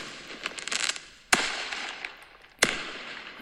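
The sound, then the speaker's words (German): Improvised fireworks: crackling and fizzing, then two sharp pops about a second apart, each followed by a hissing, sizzling tail. Loud and bright, with no talking over it. “Liebe Kinder, das soll Feuerwerk sein.”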